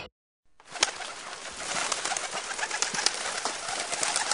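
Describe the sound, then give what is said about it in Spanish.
A dense chorus of pigeons nesting in a shed, cooing steadily and busily after a brief silence, with scattered sharp flutters and clicks layered throughout. “Lo bello de estos galpones es la cantidad de palomas que anidan.”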